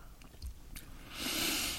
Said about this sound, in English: Let's have a little. And sip.